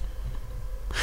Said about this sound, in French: C'est pas une blague, si vous entendez un petit bruit de fond, c'est mon chien qui ronfle. Il a fait, ça y est, il s'est remis à faire du bruit.